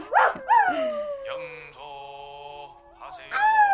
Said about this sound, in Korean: 그 개장수가 동네 입구 들어서기도 전에 개들이 뭔지 알아. 예. 온 동네 개들이 예. 다 같이 처절하게 늑대처럼 울어대죠.